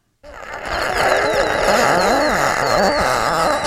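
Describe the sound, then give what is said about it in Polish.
A loud recording of a single drawn-out inhalation through lungs with pneumonia, rasping and bubbly, with high whistling wheezes that waver in pitch for about three seconds. No one speaks. “O, to jest autentyczny dźwięk płuc moich, ale to akurat nie, nie koronawirusa, słuchajcie, nie byłem wtedy pod respiratorem.”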